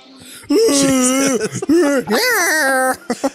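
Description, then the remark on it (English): Loud Wookiee creature vocalizations in a movie: a string of rough, warbling growls and moaning howls, several drawn-out bursts rising and falling in pitch, with short barking breaks between them and no talking. “They're all just screaming and yelling at each other.”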